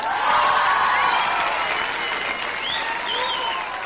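A live audience applauds steadily and loudly, a dense wash of many hands clapping with faint cheering mixed in, sustained throughout without a break.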